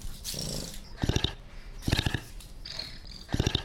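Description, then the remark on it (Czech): A honey badger mother, a female nearly 16 years old, and her cub vocalize to each other: three short, rough growling bursts about a second apart, with thin high squeaks and chattering between them. No one speaks. “Možná, že byste mohli slyšet i, jak tam probíhá zvuková komunikace právě mezi matkou a mláďátkem.”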